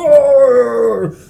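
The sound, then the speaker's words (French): A voice imitates a giant's howl: a single loud, sustained howl that slowly falls in pitch and trails off after about a second, alone. “Puis leur, leur hurlement, tu sais, frappe contre, genre, tu sais, les tonnerres, puis autour de vous.”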